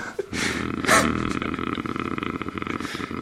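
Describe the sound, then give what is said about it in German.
A person imitates a cat's purr with a continuous throaty rumble, lasting about three seconds with a slightly pulsing texture and no clear words. “Ich höre mich an wie meine Katze.”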